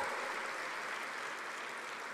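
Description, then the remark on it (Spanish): An audience applauds steadily for the Lord during a church service, a dense wash of many hands clapping at an even, sustained level with no voices standing out, holding through the whole moment. “Si va a aplaudir, hágalo fuerte para el Señor.”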